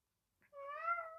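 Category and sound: animal, cat meowing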